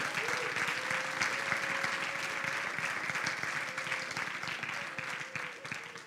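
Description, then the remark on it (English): An audience at a service applauds steadily for several seconds, dense overlapping claps forming a continuous wash of sound, with a faint sustained tone and some murmuring underneath. “All right, let's welcome them. You guys, you guys can clap. You guys can clap.”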